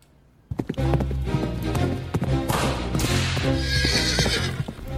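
A horse whinnies loudly over a steady clip-clop of hooves, the rhythmic clopping continuing beneath a rising, harmonic neigh with no voices present.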